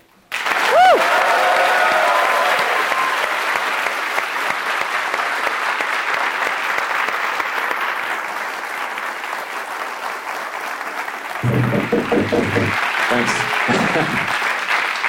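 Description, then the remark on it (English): An audience applauds warmly to welcome a guest, with steady, dense clapping for about fifteen seconds, and a voice begins speaking over the tail of the applause. “Let's give him a warm welcome.”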